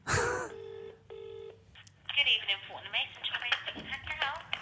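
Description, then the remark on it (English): Two clear telephone keypad tones beep in quick succession as the 4 key is pressed in an automated phone menu, each a short steady dual-pitched note, followed by a voice talking over a faint line-like hum. “or any other queries, press 4. Oh, well, that's 4.”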